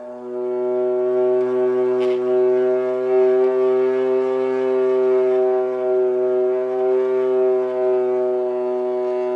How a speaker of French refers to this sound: Et la vielle, c'est un instrument qu'on tient sur le ventre on a vraiment tout le corps qui fait caisse de résonance.